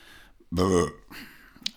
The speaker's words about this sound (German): wo ich dann diesen Rülpser hier nicht rausschneiden werde. Es liegt an diesem grässlichen Wassermelonenbier, das wir momentan trinken. Das ist nicht schön.